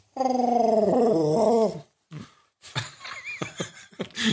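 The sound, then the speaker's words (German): A voice imitates Chewbacca, a growling alien creature: a long, throaty, wavering roar, followed by shorter gurgling grunts and rasping bursts, loud and without any spoken words. “Ich dachte mir, es wäre mal lustig, einen Podcast komplett als Chewbacca zu sprechen, der äh, von einer Taube gespielt wird.”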